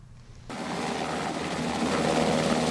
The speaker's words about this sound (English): Black Hawk helicopters flew across Taipei in the early morning on Wednesday, preparing for the live fire Hanguang military exercises in the coming week.